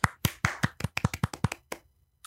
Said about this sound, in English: So, right at the top of the episode, we just want to give golf claps to Mr. D'Onofrio for his performance in this episode.